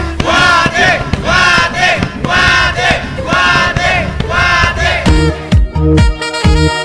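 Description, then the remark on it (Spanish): A huge crowd chants loudly in unison for Guatemala, voices rising in repeated rhythmic bursts, before the chant gives way to a sharper, punchier sound in the final seconds. “Y ese sonido que producen millones de gargantas que al unísono demuestran la unión nacional.”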